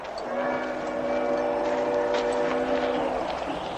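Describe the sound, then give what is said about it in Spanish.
A train draws near with a steady rumble and sustained, tonal horn-like whistle notes holding over the noise, loud and continuous throughout with no voices. “De pronto se detienen al oír el tren acercarse.”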